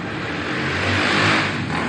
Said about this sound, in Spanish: Y, y el, acaba de pasar la moto, eh, y el gran problema es qué pongo en el buscador.